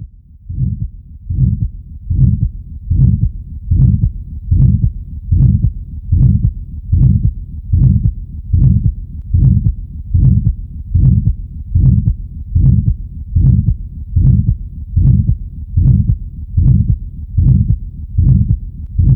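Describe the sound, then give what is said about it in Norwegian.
A loud, harsh holosystolic heart murmur of aortic stenosis with each heartbeat, repeating at a steady rhythm of roughly eighty beats per minute, as through a stethoscope, with no voices. “Og så kan vi høre på en kraftig og holosystolisk bilid, nemlig en aortastenose.”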